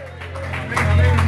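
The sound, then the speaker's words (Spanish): A crowd claps together in praise to God in a steady, lively wash of applause, with voices and murmuring mixed in underneath, the sound building slightly louder toward the end. “Dele gloria, dele palmas a Dios.”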